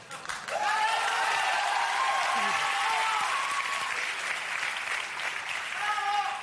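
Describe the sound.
Sustained applause from a crowd fills the whole stretch, dense and steady, with faint cheering or voices mixed underneath, at a gala where singer Mónica Naranjo stood applauding through much of a song.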